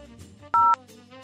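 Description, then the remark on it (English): A single short, loud electronic telephone tone, like a voicemail beep, cuts in briefly over soft background music, with no talking. “Can it be true that it is ringing?”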